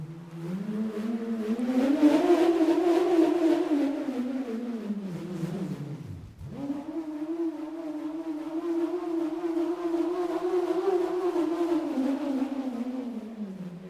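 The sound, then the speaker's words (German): A bullroarer whirs in a loud, continuous drone whose pitch swells and sags, briefly dropping out around the middle before spinning back up, with no voices; recorded inside a cave. “Es kommt wirklich sehr auf die Form von dem Schwörgerät an.”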